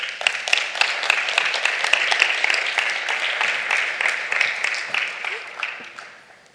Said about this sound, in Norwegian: Jo, en herlig applaus.